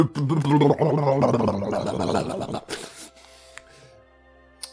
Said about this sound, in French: Allez, va te coucher, toi. Allez Allez, va te coucher. Allez. Ah, c'est mon chien.